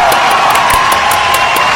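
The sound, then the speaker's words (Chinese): A crowd breaks into loud, steady applause welcoming a woman introduced as a leading figure in investing, dense clapping with sharper claps standing out at irregular moments, while a sustained cheer or whoop rides over it throughout. “投资界的女神级人物，让我们掌声欢迎。”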